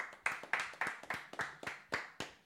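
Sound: clapping applause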